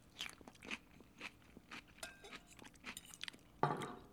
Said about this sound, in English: And I just finished that salad. I scarfed it down. This is the first salad in a long time where I've thought maybe I should go back for seconds because I really, that was really good.